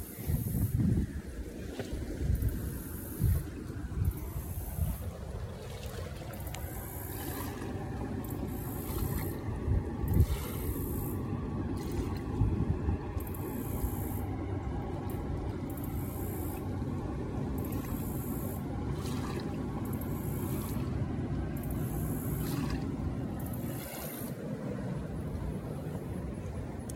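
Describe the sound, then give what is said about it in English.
Water laps softly against the shore at a canoe and kayak launch on the St. John's River amid steady outdoor wind rumble, with a few irregular splashes and knocks early on and no one speaking. “And as I walk closer, you should be able to hear some of the water lapping at the edge of the”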